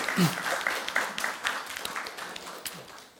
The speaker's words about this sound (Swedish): Ja, vi kan väl ge Gud en applåd.